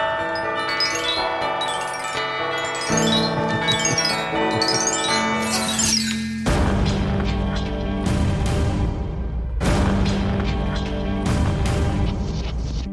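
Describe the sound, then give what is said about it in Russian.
Bells ring loudly and continuously in a dense, overlapping peal, with heavy clanging strikes landing every few seconds over a sustained metallic ringing. No one speaks. “колокола не переколоколишь своей этой Но гармошкой.”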